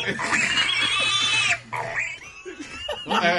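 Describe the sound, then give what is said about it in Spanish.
A pig sound effect: loud pig oinks and squeals in quick succession, harsh and nasal, with a brief gap before a final squeal near the end. “ok, no, that's a pig. Que te puso un sound effect.”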